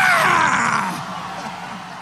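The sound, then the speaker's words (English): Archival audio of the Dean scream from the Iowa caucuses: a man lets out a loud, hoarse scream that slides downward in pitch, belted over the roar of a cheering rally crowd for about two seconds. “But while I've got this Joe Trippi audio queued up, should we maybe talk about the Dean scream?”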